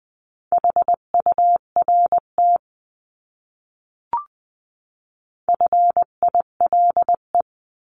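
Morse code beeps in a steady mid-pitched tone, keyed into quick dots and dashes sending words at 18-20 words per minute, across two bursts separated by a pause with a brief click. No voices, just the clean tones.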